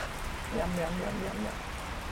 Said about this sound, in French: C'est une grande ferme organisée autour d'une cour avec des bâtiments agricoles. Il se mettre à pleuvoir.